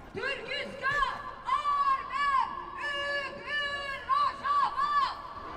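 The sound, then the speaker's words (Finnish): A crowd at a World Resistance Day protest against the invasion of Rojava shouts rhythmic protest chants, loud, with voices rising and falling in a steady repeating pattern of short bursts. “Ääni on niin kova, että joutuu tämän puheen nyt keskittämään tälle rytmikkäästi näiden huutojen väliin.”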